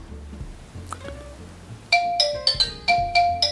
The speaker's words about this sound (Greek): Α, χτυπάει και το τηλέφωνο. Κάνω μία διακοπή και επιστρέφω σε λίγο.